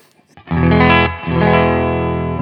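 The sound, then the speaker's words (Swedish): A loud electric guitar played on its middle pickup with effects and distortion plays two sustained chords, the first cutting off around a second before the next rings out, thick and harmonically rich with no talking. “vi tar eh, mitt, mitt läget här då”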